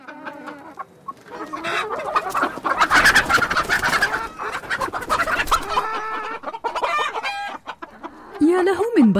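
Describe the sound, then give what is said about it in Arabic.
Several hens cluck and squawk busily at a chicken nest, a dense, overlapping chorus of clucks with sharper cackles rising throughout, and a rooster-like call near the end. “كانت زوجة تشانغسو تطحن الشعير في المطبخ المظلم ثم ذهبت لتتفقد عش الدجاج وعادت وهي تحمل ابتسامة كبيرة على شفتيها”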